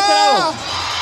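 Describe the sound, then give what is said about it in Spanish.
A large crowd on the right-hand side at an event lets out one loud, unified yell on cue that slides downward in pitch and breaks off after about half a second, leaving a steady low hum of background noise. “Acá hay más gente y se escucha más recio este lado. Pero acá también hay más gente, compadre. Que trae sonido, viejo. El grito de la derecha.”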